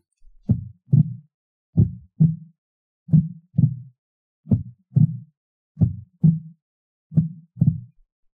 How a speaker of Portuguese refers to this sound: Como que seria um coração mais lento?